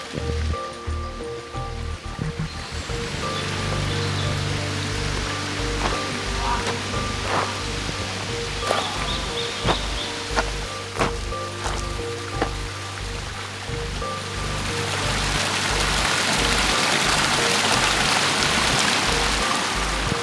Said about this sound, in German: Also wir laufen hier wirklich immer weiter den Berg hoch in ja immer am Bach entlang und er hat so viele kleine Wasserfällchen, die kann man gar nicht alle zählen.